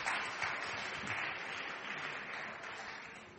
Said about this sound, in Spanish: Muchas gracias, Un aplauso para ellos.